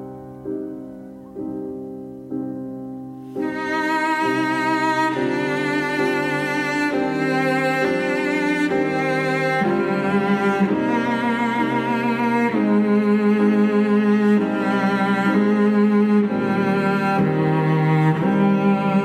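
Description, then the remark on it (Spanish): A cello belonging to a French cellist plays a few separate, swelling bowed notes, then broadens into a rich, continuous melody with warm vibrato and a fuller backdrop, steady throughout with no talking. “Y este es el de la chelista francesa, un chelo pues que suena así, mira, vamos a escucharlo.”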